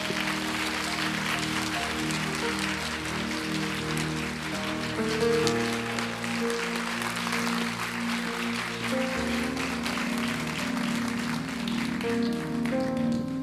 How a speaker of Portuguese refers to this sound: Você pode dar uma salva de palmas?